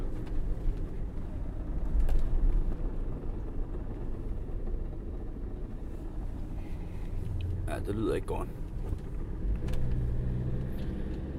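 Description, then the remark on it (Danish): A car engine rattles loudly and steadily as the clutch is disengaged, a rough, continuous low clatter running the whole time, with a man briefly speaking over it. “motoren i bilen er nu begyndt at give sådan en voldsom raslyd, lige så snart jeg kobler ud.”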